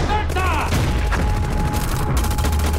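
A dense, continuous barrage of gunfire and explosive booms, loud and sustained throughout, with a low rumbling undertone and shouted voices mixed into the chaos of a battle scene in the war drama film Herz aus Stahl.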